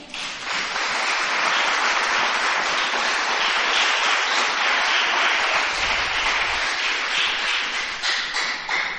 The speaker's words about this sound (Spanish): ¿Le da un aplauso al Señor?